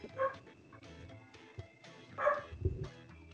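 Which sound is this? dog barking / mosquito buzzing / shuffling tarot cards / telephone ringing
dog barking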